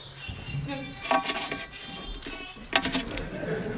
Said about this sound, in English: Have you not heard that song enough, Pat, that you would make it your ringtone?